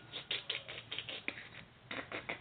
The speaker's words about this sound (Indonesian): Terus kalau mandi ini apa nih? Sikat gigi. Sikat gigi, ada bunyinya sikat giginya.